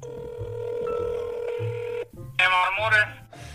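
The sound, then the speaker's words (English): A phone line rings on an outgoing call to car mechanics about fixing a car stereo: a steady electronic ringback tone holds for about two seconds, cuts off, and then a voice answers briefly over the line. “We realized we had to get this fixed immediately, so we called up some mechanics and asked, hey, can you fix this?”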